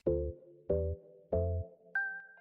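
Three buzzy mechanical grinding bursts repeat in a steady rhythm, fairly loud, a Sony-created floppy disk holding about 1.4 MB whirring in its drive as it reads, followed by a short higher-pitched electronic tone.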